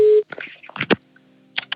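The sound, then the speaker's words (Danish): A steady telephone tone sounds briefly, then cuts off into a quick run of short electronic beeps, like a number being dialed on a phone line, fairly loud, as a call is placed to a Swedish anthropologist at her office in Malmö. “Jeg ringer til den svenske antropolog og ekspert i omskæring,”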